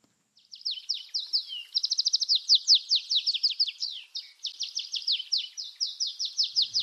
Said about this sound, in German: Schönes Piep, schönes Gezitscher. Kann man ursprünglich auf den Kanaren hören. Es ist nämlich der Kanarengierlitz, die Stammform von dem Kanarienvogel, den ja einige Menschen sich bei sich zu Hause in der Voliere halten.